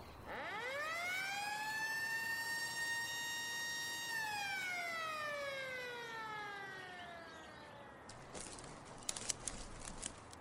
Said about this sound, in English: At 10 a.m., the referees placed the contestants around the edge of the forest out of sight from one another, and at the sound of a bullhorn, the game began.